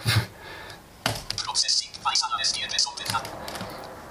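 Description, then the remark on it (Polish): Crisp computer mouse and keyboard clicks as someone quickly clicks to start processing a weather sonde signal, an irregular burst of taps, one sharp click first and then a quick cluster of lighter clicks, with a faint voice briefly audible at the start. “W takim razie szybciutko klikam proces.”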